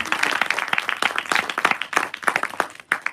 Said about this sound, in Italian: Ok, benvenuti, facciamo un applauso, benvenuti.